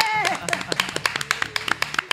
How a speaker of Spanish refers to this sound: Un aplauso para esta gente.